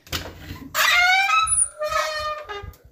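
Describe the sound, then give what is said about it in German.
A door creaks open with a long, drawn-out squeal that wavers in pitch, followed by a couple of shorter squeaks, fairly loud with no talking. “Tür auf. Ja, ich mache. Öffne sie.”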